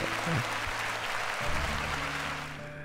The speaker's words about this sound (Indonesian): Salut men, gue pengen applause cuman tangan gue megang mikrofon jadi susah. Pakai efek aja ya, efek efek tepuk tangan nih. Tek, tek, tek.